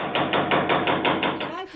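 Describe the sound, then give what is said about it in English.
A rapid, steady series of about eight firm knocks on a door, fairly loud, as election officials accompanied by armed soldiers go door to door searching for voters in a wartime referendum, fading into a brief murmur of a voice at the end. “Election officials, accompanied by armed soldiers, go traipsing up flights of stairs, knocking on doors, searching for voters.”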